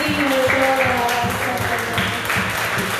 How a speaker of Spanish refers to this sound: Y te damos este fuerte, fuerte aplauso Señor.